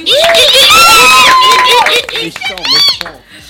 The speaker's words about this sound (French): Merci de faire un peu, des petits cris hystériques pour notre musicien producteur qu'on adore